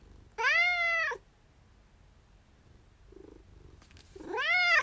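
A cat meows loudly twice, long drawn-out wails separated by a few seconds of near silence with a soft muffled sound in between.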